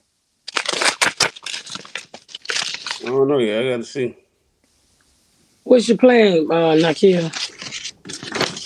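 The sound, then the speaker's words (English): Paper rustling and tearing as mail envelopes are ripped open, in quick crackly bursts that come before and between people talking. “…'s opening the mail. That's the noise you hear in the”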